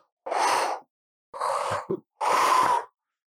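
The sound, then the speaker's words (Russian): A voice imitates the heavy spacesuit breathing and hissing oxygen system heard when wearing VR glasses: three loud, breathy bursts with short gaps, the middle one ending in a brief click-like puff. “Может быть, это э, игра, но все-таки, когда ты одеваешь VR э, очки, ты начинаешь слышать вот это дыхание, срабатывание системы кислорода.”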